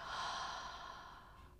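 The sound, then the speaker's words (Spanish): A single forceful exhalation during a breathing exercise, a long breathy whoosh of air pushed out, strongest at the start and tapering off over about a second and a half, with no talking. “Y exhala fuerte, fuerte, fuerte.”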